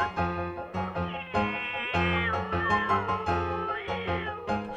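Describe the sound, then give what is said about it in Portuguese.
Cats meowing loudly and almost continuously while fighting each other, their overlapping drawn-out cries rising and falling in pitch, with no one talking. “Os gatos se divertiram lutando uns contra os outros.”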